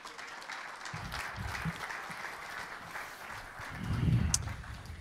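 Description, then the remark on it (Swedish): A church audience applauds steadily to welcome a visiting pastor as he comes forward to speak, a dense wash of many hands clapping that swells louder near the end, with no voices speaking over it. “Ska vi honom en riktig applåd när han kommer?”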